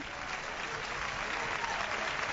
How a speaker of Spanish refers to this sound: Aplaude ahora la gente aquí al jugador de, del Mérida. Ha sido expulsado por doble, tarjeta amarilla.